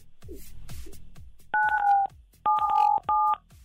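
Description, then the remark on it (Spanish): Three telephone keypad tones dial 977 as a radio listener in Azcapotzalco presses the keys on their phone to activate the station's prize wheel, 'la ruleta regaladora' of La Mejor 97.7: a longer first beep, then two shorter matching beeps close together, all loud and clear after a stretch of rapid rhythmic ticking. “Entonces presiona en tu teléfono el 977, corre.”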